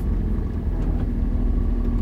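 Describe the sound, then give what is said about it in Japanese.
Steady low rumble of road and engine noise inside a moving car on a cold, sunny November day, continuous and fairly loud, with no speech over it. “ね車の中がねとても寒いです”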